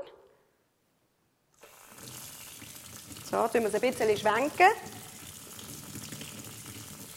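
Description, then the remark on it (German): After a moment of silence, tap water starts running over tomato seeds in a sieve to wash off their gel-like coating, a steady hiss that continues to the end while a person speaks briefly over it. “Heben sie es einfach unter den Wasserhahn.”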